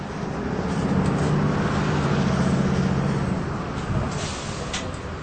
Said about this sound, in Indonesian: adegan bus yang ditumpangi Philip untuk pergi ke tempat pertunjukan musikal dihalangi oleh kemacetan lalu lintas